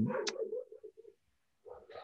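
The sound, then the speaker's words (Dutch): A dog makes a short run of whining, yelping sounds in the background, falls quiet for about half a second, then gives another brief burst. No one speaks. “dat is de hond op de achtergrond die je hoort.”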